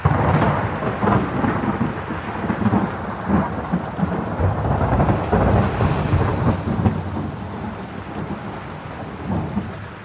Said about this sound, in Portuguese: Teve uma vez em que começou uma chuva repentina.